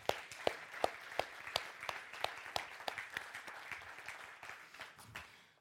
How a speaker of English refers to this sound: But um, I just wanted to give them a, uh, just a round of applause for their efforts.